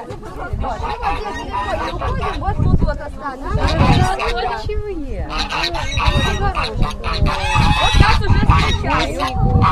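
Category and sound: bird, geese honking loudly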